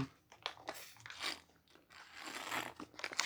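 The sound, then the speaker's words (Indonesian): Someone drinks, with a run of irregular wet mouth noises, sips and swallows, plus crinkly handling sounds, moderately loud and without talk. “oke saya sudah mulai pusing sudah mulai berat minum dulu”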